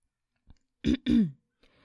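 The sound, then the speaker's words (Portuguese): A person imitates clearing their throat: two quick, harsh, raspy bursts, the second longer and more voiced, with a soft tap just before. “Uf, pá, bebe água para ver se não faz isso constantemente.”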